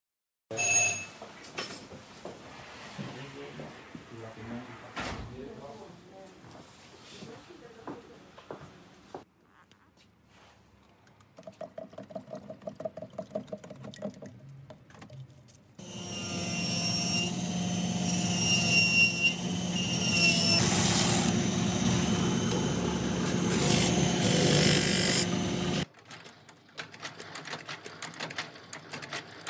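Ambience of the Barbera family's shoemaking workshop in Biella, making shoes to measure since 1968: irregular filing, rasping and clattering of tools, then a loud, steady machine drone for about ten seconds before the room settles back to quieter work noises. No one speaks.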